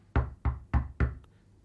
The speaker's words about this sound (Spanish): Hasta que de repente, una madrugada a las dos y media años después, en el año 85, hay una llamada a la puerta de la casa de los Gosh.